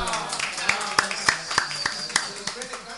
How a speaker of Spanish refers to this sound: Y aplausos pues Bueno.